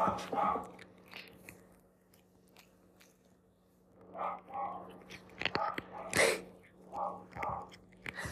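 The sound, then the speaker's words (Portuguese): A cat chewing, with irregular crunchy, wet bites that come in uneven bursts and brief pauses over a faint steady background hum. “Espero que se consiga ouvir o gato a mastigar.”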